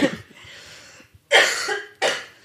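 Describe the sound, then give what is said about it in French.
A person coughs: a short rough burst, a pause, then two strong harsh coughs in quick succession, with no talking. “Attendez, je tousse.”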